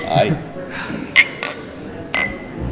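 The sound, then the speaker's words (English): Beer glasses clink together in a toast: a bright ringing clink, a softer knock, then another ringing clink a moment later, over low murmuring voices. “I like this beer. Thank you. Thank you. cheers.”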